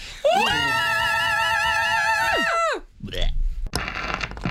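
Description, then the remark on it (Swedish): A loud, sustained high-pitched scream with a wavering vibrato, held for over two seconds in a power metal style, then cutting off into brief noise and murmuring voices. “Vi ska frigöra oss från själslig vånda genom ett traditionellt, tväckt, äkta, jag blir upprörd, power metal-skrik.”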